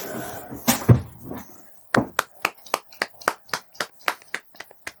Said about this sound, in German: Ich klatsche einfach mal. Ich habe keinen Klatschtag.